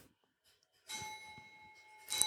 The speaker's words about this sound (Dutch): Ah, mooi die klok, toch? Dat was van mijn moeder. Ja, dat is mooi.